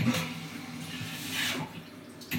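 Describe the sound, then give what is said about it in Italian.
A toilet's reduced-water flush, using less water, with a short burst of rushing, gurgling water that swells briefly and then trails off. No one speaks. “L'arcobaleno più grande fa il flash, appunto, manda giù l'acqua.”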